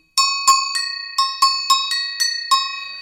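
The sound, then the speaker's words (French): Small bells ring out in a quick, uneven series of about eight bright, metallic strikes, each chiming clearly and shimmering briefly before the next, fairly loud with no talking. “Autrement, bah, voilà, je sais pas, moi, des cloches”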